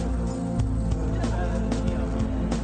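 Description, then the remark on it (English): A loud fart with a low, buzzing rumble that sputters in uneven bursts for a few seconds without letting up. “Oh, he farted! Did you hear that? He farted too.”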